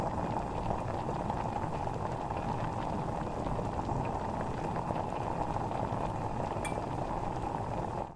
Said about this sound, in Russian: Первым делом доведите до кипения куриный бульон в суповой кастрюле среднего размера.